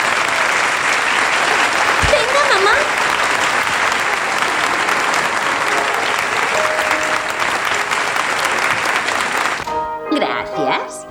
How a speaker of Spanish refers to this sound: Venga arriba, se merecen un gran aplauso.